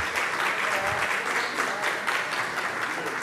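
A steady round of applause from many hands at a church service celebrating a birthday, dense crackling claps holding at an even, fairly loud level throughout with no clear pauses.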